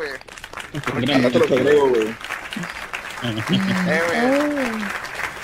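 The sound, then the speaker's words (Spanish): Steady, dense applause fills the whole stretch, a continuous patter of many clapping hands celebrating reaching 300 views on Facebook, with a voice talking loudly over it. “Aplausos. aplausos, hay que aplaudir, güey, hay que aplaudir,”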